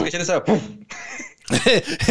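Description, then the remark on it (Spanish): A short stifled cough, muffled and held back, comes in a couple of suppressed bursts, mixed with voiced sounds like someone talking through it. “Pero sí iba de que estaba tosiendo yo.”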